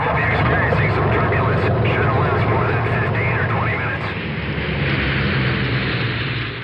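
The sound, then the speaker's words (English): An airplane sound effect: a loud, steady roar of an airplane flying overhead fills the whole stretch, a dense low rumble with whining engine tones above it, easing only slightly near the end. “Who is flying this plane?”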